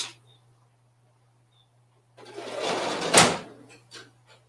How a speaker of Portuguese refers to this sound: Eu vou ver só se eu fecho a janela aqui, porque senão. Só um minuto, eu vou fechar a janela.